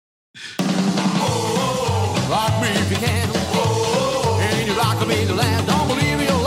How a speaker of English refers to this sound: Hear that slap bass in the background there? Oh, yeah.